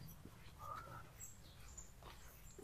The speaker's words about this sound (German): Hört ihr die Vögel? Oder hören nur wir das Gezwitscher? Schön ist es, oder? Es ist halt wirklich idyllisch. Es hat geregnet, also die Erde ist ein bisschen feucht, die Luft ist kühl.